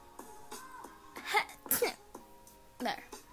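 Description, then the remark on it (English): A loud sneeze: a voiced, breathy build-up followed by sharp bursts of noise, then a brief vocal sound afterward, with no talking. “my sneeze sounds so fucking fake.”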